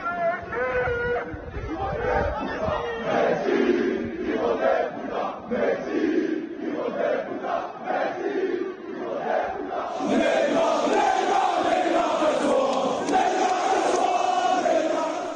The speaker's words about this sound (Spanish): un grupo de aficionados de ultras se fue un poquito más lejos, de Ibelán, se plantaron en la puerta de la casa de, de Neymar y para gritarle Neymar castúa ¿no? Neymar pirate